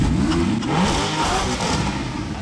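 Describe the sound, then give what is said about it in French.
Loud sports car engines, including a 991 GTS, rev and rumble continuously, with pitch sweeping up and down as several powerful cars accelerate together on a group drive, no voices heard. “parce qu'il y a une, un paquet de bagnoles euh, qui font du bruit.”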